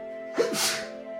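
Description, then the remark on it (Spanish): A single sharp sneeze bursts out, a quick intake followed by a breathy, explosive release, with no talking around it. “Salud. Salud.”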